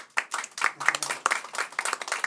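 A light round of applause from the women in the audience, voting by applause for "totally bald": a smattering of irregular, overlapping hand claps, fairly soft and brief, with no one talking over it.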